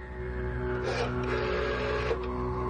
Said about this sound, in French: Ça sonne, il va répondre. Ça sonne chez lui là-bas, oui.